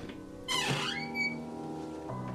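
A drawn-out creak of an old wooden staircase as people climb to the upper floor toward a long hallway. The bending, squeaky groan swells and dips for about a second, then fades into quiet.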